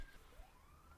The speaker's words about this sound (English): I am so sorry if you can hear that siren in the background. I swear it was not me.